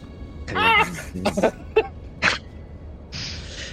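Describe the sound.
A voice imitates a giant mosquito's buzz in a few short bursts: a wavering, nasal hum first, then briefer buzzy puffs, followed by a faint hiss at the end.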